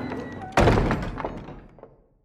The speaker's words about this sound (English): He's hauled back to the camp and thrown on the floor of the stockade, the door slammed and locked behind him.